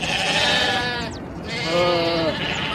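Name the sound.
sheep bleating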